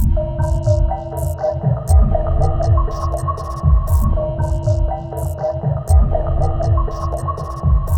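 Whale song: long, wavering tonal moans and rising calls drawn out over a deep, throbbing low rumble, with scattered sharp high clicks, steady and fairly loud throughout with no voices.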